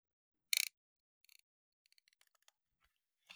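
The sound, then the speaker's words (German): The advance wheel of a cheap film camera being wound: a bright ratcheting burst, then a few quick clicks and a run of fainter, uneven ticks, with no voices. “Warte, ich, ich finde dieses, äh, ich finde dieses Geräusch auch so geil, dieses Aufdrehen, weißt du?”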